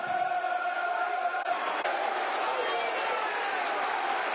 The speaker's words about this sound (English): Listen to what the crowd think of that. They're getting behind the lines now, listeners, as you can hear.